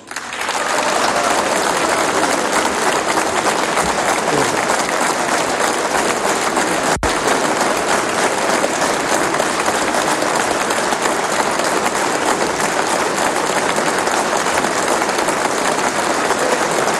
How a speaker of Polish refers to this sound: Z tego miejsca zwracam się do koleżanek i kolegów z Prawa i Sprawiedliwości. Podziękujmy oklaskami naszym wyborcom.